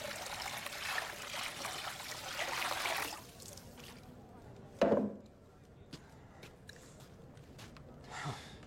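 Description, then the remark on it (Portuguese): A steady, splashy stream of water pours for about three seconds and then stops. A sharp knock follows, then a few faint clicks and a soft rustle; otherwise quiet. “Vai, pega água.”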